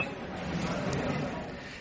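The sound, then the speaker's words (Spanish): A single bright clink of wine glasses in a toast rings out briefly over a steady murmur of voices and background hubbub, like a lively gathering. “Última llamada a los pasajeros con destino al viñedo abróchense los cinturones, descorchen sus botellas y disfruten de brindis por el mundo.”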